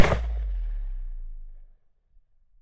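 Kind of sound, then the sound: sound effect, gunshot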